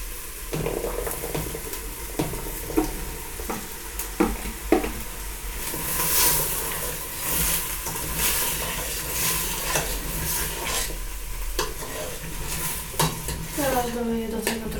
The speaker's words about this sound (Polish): troszkę wody, jak papryka się już tutaj smaży i to się będzie dusiło. Trochę się to chyba posmaży, no ale trudno. I sobie to dam na mały gaz, w sensie najmniejszy i to niech się dusi.